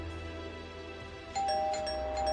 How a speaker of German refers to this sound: Freunde klingeln ein paar Tage später an ihrer Tür.